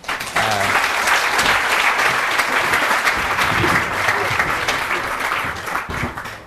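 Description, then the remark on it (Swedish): A crowd claps steadily in warm, sustained applause for two national team coaches, a dense rattle of many hands that starts abruptly, holds at an even level for several seconds, then eases slightly toward the end. “Så jag vill att vi ger en varm applåd”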